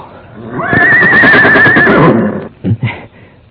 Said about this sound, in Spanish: ¿Por qué relincha mi caballo? Lo hacen estos animales cuando hay otros caballos cercaderos